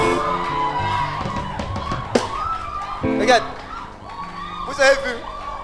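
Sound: crowd shouting and cheering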